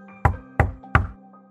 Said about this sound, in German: Meine Faust klopfte sanft gegen die Wand, während ich anfing, über mich selbst zu lachen und geduldig zurück zu meinem Bett lief.